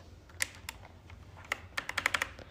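Crisp, clicky keystrokes on a new computer keyboard, a few scattered taps then a quick burst of typing near the end, fairly loud with no talking.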